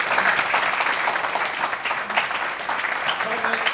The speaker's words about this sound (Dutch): Ja, even een applaus.